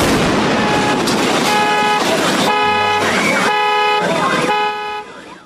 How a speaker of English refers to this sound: So let's play a little clip of that explosion. As I mentioned, homes were damaged, a car flipped well, you, over. Well, yeah, car got knocked over and you'll hear the car alarms being triggered.